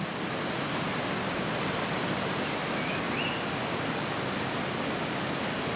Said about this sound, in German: So here is the Sagama River, the second longest river in Sabah if I'm not mistaken, is 360 kilometer towards sea.